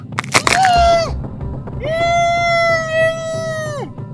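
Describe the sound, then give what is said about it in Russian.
A quick burst of sharp cracking crunches of finger bones, then a strained, high-pitched scream through a gag that breaks off and returns as a long sustained wail, its steady tone slightly muffled and nasal. “Хруст пальцев, крик через кляп.”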